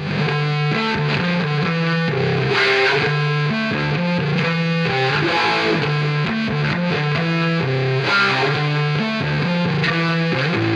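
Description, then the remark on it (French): An electric bass solo, played like a guitar through a wah-wah pedal and heavy distortion, plays sustained melodic notes and chords continuously and loudly, with no voices. “c'est bien une basse, pas une guitare. Mais … en joue comme d'une guitare, avec pédale wah-wah et distorsion”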